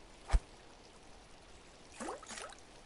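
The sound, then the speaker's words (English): Gentle splashing of fountain water over a soft, steady trickle, with one distinct splash early on and a few more clustered later. Quiet, with no voices. “The hiss of wind through the labyrinth's trees and the gentle splashes of the fountain making me feel profoundly empty.”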